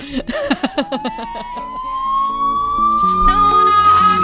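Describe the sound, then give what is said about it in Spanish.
A police car siren winds up in one long, steadily rising wail, loud, over choppy rhythmic sounds at the start and a dense layer of background noise underneath. “llegamos con uniforme y patrulla.”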